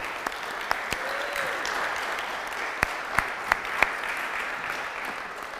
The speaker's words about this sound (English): I feel like we should just clap and praise God